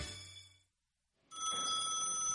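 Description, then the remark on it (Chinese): Sheriff Labrador's telephone rings in two loud bursts of bright, buzzing high tones, separated by a short silent pause, with no voices. “这天，拉布拉多警长像往日一样接起了电话，不过这次电话另一边传来了一个熟悉的声音”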